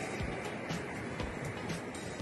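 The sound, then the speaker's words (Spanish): A steady, broad roar of surf washing over a rocky beach where rocks jut out along the shore, continuous and fairly loud, with faint swells of spray rising and falling and no voices. “Esta es la playa y en este sector donde están todas estas rocas van sobresaliendo”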